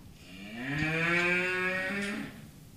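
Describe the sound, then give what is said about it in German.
A single long moo from a cow inside a stall, loud, swelling and then tapering off with a slightly hollow, reverberant echo. “Die ist aber im Stall. Das ja, habe ich am Echo gehört. ich habe aber nur leider diese eine Kuh.”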